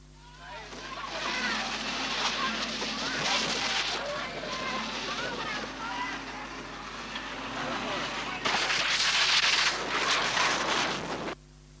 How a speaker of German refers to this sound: das war der Wasserwerfer. Und der hat dann leider das Mikrofon außer Betrieb gesetzt.